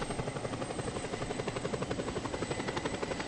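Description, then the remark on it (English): A steady, continuous video game aircraft engine drone with a fast rhythmic chopping pulse, loud, like a helicopter's rotor, while a player is flying, with no one speaking. “We're not showing the screen because he's flying, you know.”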